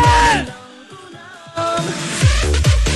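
A nightclub crowd screams and whoops over loud, pounding dance music; the noise dips briefly, then surges back as a dense, sustained roar punctuated by deep bass swoops.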